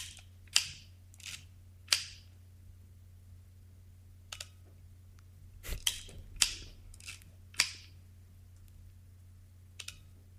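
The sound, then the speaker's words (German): A Minox 35 EL compact film camera being handled and fired: a series of sharp mechanical clicks and shutter snaps, irregularly spaced, some doubled, over a faint low electrical hum with no talking. “das ist eine Minox 35EL.”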